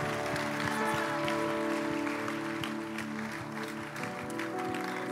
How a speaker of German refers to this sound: Lass uns Applaus geben. Come on.